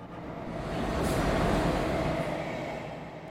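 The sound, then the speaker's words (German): A train departs, rumbling steadily, its low, broad roar swelling and then easing slightly as it rolls along. No voices, just the continuous mechanical din of the carriages. “Wir steigen ein und ab geht die Fahrt.”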